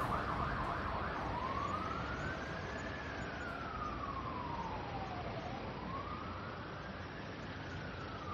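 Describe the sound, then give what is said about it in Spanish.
An ambulance siren wails in slow rising and falling sweeps, steady and fairly loud, over a constant rumble of road traffic, with no voices. “Buen día, somos la ambulancia que solicitaron.”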